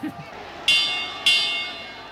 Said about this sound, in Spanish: Eh, suena la campana y termina el pleito.